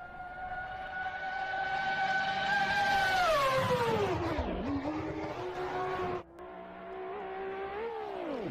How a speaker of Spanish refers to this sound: Para que se hagan una idea, la categoría 1 de 74 a 95 millas por hora es como la velocidad de algunos autos deportivos en autopista. Imagina un automóvil rápido sonando por la carretera.